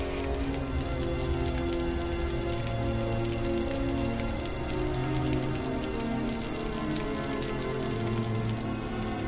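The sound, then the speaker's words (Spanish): Steady rain falls and patters on a hard surface, a dense continuous hiss with scattered droplet taps, constant throughout, with no voices. “Llueve.”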